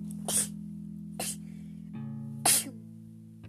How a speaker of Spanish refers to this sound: Sí, también estornudo.